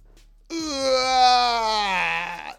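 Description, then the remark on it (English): A single long, drawn-out groan from a man doing an old-fashioned stretch, loud, held for about two seconds with a slowly sagging pitch. No talking. “that's the old fashioned stretch.”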